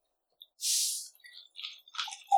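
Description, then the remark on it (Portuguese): An airy slurp as someone sips the last of a coconut water, a breathy rush followed by a few short, bubbly gurgles and sputters near the bottom of the drink. “ah, tá água de coco, mas ela deve estar tá acabando.”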